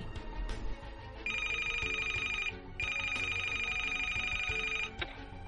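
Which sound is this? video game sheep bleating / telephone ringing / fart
telephone ringing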